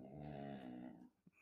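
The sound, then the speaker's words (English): A dog lying down lets out a low, drawn-out grunting growl for about a second, then goes quiet apart from a brief soft huff. “He can't just lay still and not grunt.”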